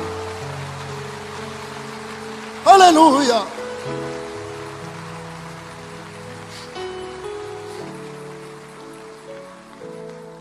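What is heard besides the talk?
audience applauding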